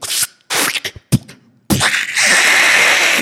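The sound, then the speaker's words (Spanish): A voice imitates an explosion with a few sharp, breathy mouth bursts, then a loud, sustained hissing rush that carries on to the end, forceful. “Una explosión como no se imaginan.”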